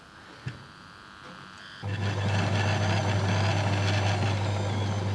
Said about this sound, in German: Wir dürfen jetzt, weil das eine Anschauung ist, können wir darauf verzichten und dann bohren wir mit dem neuen Bohrer weiter.